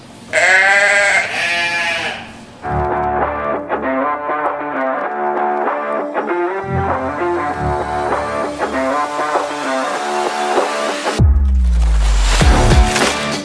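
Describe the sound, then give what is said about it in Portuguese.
A loud, wavering goat bleat from a goat head being killed in a video game opens, lasting about two seconds, then gives way to busy, tonal electronic game sounds, ending with a deep rumbling burst. No one speaks. “Vamos, vamos matar a cabeça de bode.”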